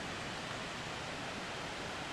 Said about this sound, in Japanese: 滝の音がだんだんと大きくなってきましたねすごいな133メートルの高さから落ちてくるこの滝ね